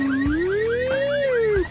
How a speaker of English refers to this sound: Hell, put one of those things that beep when the trucks back up. Beep, beep, beep, beep. Uh oh, grizzly bear, let's go. How about a fancy car alarm?